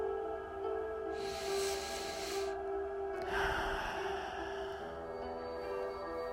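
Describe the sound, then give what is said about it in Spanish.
A person takes a slow, deep breath during a guided meditation, drawing it in and then releasing it. There are two broad airy swells over a soft, steady drone, with no talking. “Respira una vez más.”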